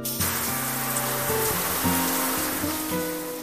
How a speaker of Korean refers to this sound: 그리고 집에 도착해 부랴부랴 샤워를 시작했죠.